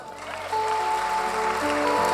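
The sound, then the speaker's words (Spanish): An audience breaks into dense, steady applause that swells after a brief start and holds at full strength, with sustained keyboard chords ringing underneath. “Da un aplauso al”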